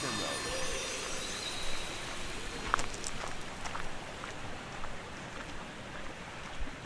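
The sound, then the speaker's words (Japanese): A river flowing nearby babbles steadily, its broad rushing hiss continuous and fairly loud throughout, with a few faint, brief frog calls scattered over the flow, in Akita, Japan. “テレビはおろか時計もない聞こえてくるのは近くを流れる川のせせらぎとカエルの鳴き声日常を忘れて心の底からゆっくりとできそうです”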